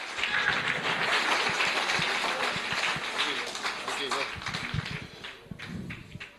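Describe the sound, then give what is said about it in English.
A crowd applauds a pastor invited to come forward, with dense, steady clapping mixed with cheering voices, holding strong for several seconds before thinning and fading toward the end. “Let's give the man of God a round of applause.”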